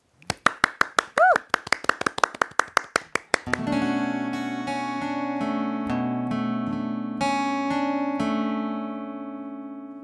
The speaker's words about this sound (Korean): 자, 그럼 저희 기대해 보면서 박수로 청해 듣겠습니다.